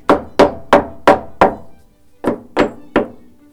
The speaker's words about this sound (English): It's quite agricultural, isn't it? You just hit it with a. Just hit it with a hammer until it comes out. Nothing technical.